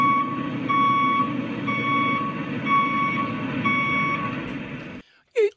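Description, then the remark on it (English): A truck's reversing alarm beeps in a steady, evenly spaced rhythm over a low diesel engine rumble as the truck does some work, then cuts off abruptly as a brief voice is heard. “If you just stand to the left a little bit, we've just got a truck to do a bit of work here.”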